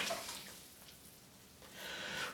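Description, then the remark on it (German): Soft splashing and sloshing of water in a bathtub, swelling at the start and again toward the end, with a quieter lull between. Fairly faint, no voices. “Jetzt muss ich aber raus hier. Das Wasser wird so langsam kalt.”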